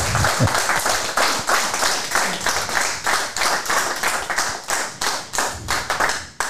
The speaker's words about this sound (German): Oh ja, jetzt müssen wir uns überlegen, wie wir starten in den BVB-Podcast vor Publikum. Vielleicht mit einer ordentlichen Runde Applaus